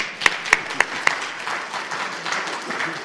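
An audience applauds: four sharp, evenly spaced claps ring out first, then a softer, steady patter of scattered clapping continues at moderate volume, with no voices over it.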